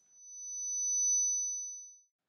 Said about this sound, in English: when your tinnitus comes into effect and you start hearing that high pitched noise that sounds like this